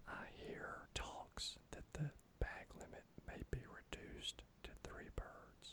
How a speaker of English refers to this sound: So I'm going to whisper this in hopes that it really does happen.